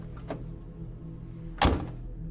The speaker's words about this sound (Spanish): De pronto y sin percatarme antes, escuché cómo las puertas de mi auto se cerraron de golpe.